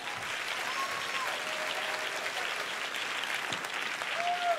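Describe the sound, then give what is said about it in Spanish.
A crowd applauds the Lord steadily for several seconds at a preacher's invitation during a sermon, a dense wash of clapping, with faint whistles or high tones sliding through the noise. “Si usted quiere, apláudale.”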